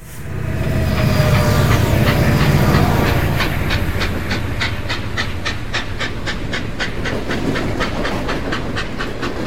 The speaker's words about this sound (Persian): چون همیشه حرفا که به اینجا رسید یه صدایی مثل صدای قطاری که عشق قهرمان قصه توش نشسته و داره میره گوشم و کر میکرد